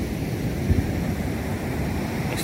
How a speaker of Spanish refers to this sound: esta es una pequeña barra. Afortunadamente no traía la corriente el río. Y es nada más el oleaje que está cruzando hacia la laguna.